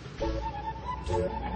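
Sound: train starting to move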